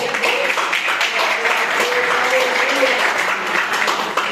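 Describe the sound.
An audience at a church service claps steadily and densely for several seconds in praise of the Lord, a continuous wash of many hands, with faint voices calling out underneath.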